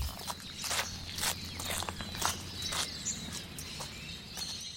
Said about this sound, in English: it's being out in nature, it's being out with the breeze, with the bird song, with the kangaroos in the evening and the morning light, and the crunch on gravel underfoot is just quite lovely.